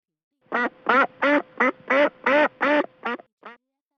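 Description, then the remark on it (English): A duck quacks loudly, about nine raspy quacks in a quick, steady rhythm, the final one shorter and softer. No one speaks. “Quack, quack, duck wakes up the queen.”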